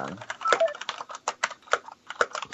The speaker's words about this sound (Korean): 키보드 소리 뭔가요?